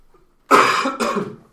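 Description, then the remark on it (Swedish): A loud throat clearing breaks into a short cough, two rough bursts in quick succession with no talking around them. “Hosta vidare.”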